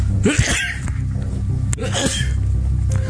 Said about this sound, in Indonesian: sorry sorry batuk batuk